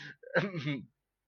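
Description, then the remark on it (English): A single sneeze: a brief sharp intake followed by a voiced, burst-like exhale, heard on its own without talking. “Bless you, mate.”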